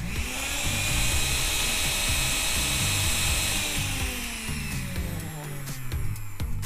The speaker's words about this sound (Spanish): Tapa y procesa por un par de minutos. Cuando todos los ingredientes se estén integrando, pausa la licuadora, quita la tapa y salpimienta al gusto. Luego tápala y vuelve a procesar hasta que la mezcla sea homogénea.